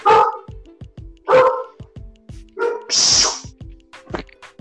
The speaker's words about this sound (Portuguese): Meu cachorro tava tá feito louco aqui. Sempre fazendo barulho